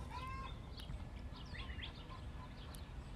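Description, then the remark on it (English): Hens cackle outdoors in a loose, overlapping chorus of short, rising squawks after laying eggs, one hen calling and the others around her joining in, over one another above a steady low rumble of background noise. “this sound always gets me because it's not just one chicken.”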